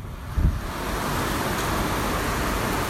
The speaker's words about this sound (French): Il y a de l'eau qui coule euh, le long des poteaux et qui vient euh, s'échouer dans les quais. Et il y a cette pluie battante qui tape sur le toit.